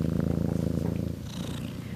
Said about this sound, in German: Tierarzt, Füttern, Pflegen und wie ich gerade merke, gehören da auch Streicheleinheiten dazu. Ich gebe mein Bestes und Peanut schnurrt auch ganz kräftig.